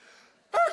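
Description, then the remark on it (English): A voice imitates a sneeze: one short, loud burst that erupts abruptly near the end after a brief quiet stretch. “Bless you, thank you. You guys all failed the test”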